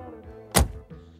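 A single solid thunk of a car door slamming shut, loud and low, breaking through a steady background engine hum that continues afterward, as a passenger gets out of a stopped agency taxi in front of twin buildings.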